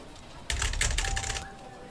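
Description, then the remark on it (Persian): A quick burst of keyboard typing, several rapid clicking keystrokes lasting about a second, then quiet. “تون تون روی کیبورد تایپ کرد سپس سر بلند کرد”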